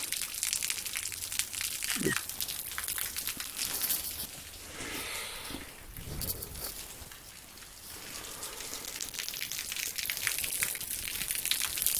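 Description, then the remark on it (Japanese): A thin, steady trickle of water from Fudo Falls (Fudo no Taki), a small waterfall with one or two thin lines of falling water, a soft continuous splashing hiss with a few brief crunchy rustles. “まあ、滝つっても、あの、音聞いて、だいたい5冊しかと思うんですが、ちょろちょろちょろちょろ、あの、細い水の線がですね、1本、2本流れてるという、まあそんな可愛らしい滝ではあるんですが”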